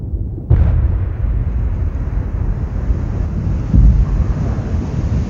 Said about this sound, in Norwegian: hører Dennis den store eksplosjonen i regjeringskvartalet bare 500 meter unna